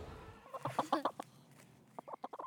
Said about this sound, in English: is newer to backyard chickens. She has four hens.